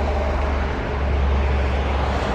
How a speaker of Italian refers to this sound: che in questo caso era traffico urbano